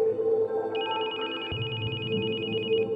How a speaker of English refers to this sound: My phone began to ring. I crawled to it.